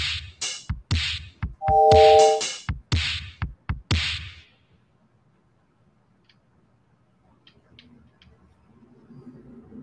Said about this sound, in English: So the drum, the drum sound is that coming from the keyboard, or is that coming from the Metro M7? it's all coming from the Metro M7. That sounds really good.